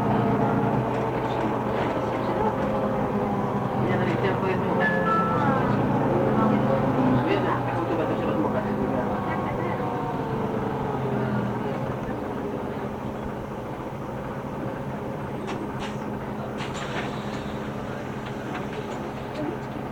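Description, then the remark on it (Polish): Steady low engine rumble and hum from inside a city bus stopped at traffic lights and about to move off, recorded with an RQR30 model, continuous throughout and easing slightly in the second half, with faint muffled voices in the background. “Autobus stoi na, światłach. Zaraz ruszy.”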